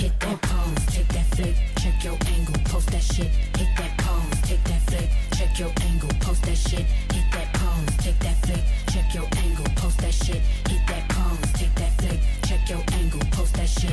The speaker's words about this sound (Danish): Det du hører her var … med …, et nummer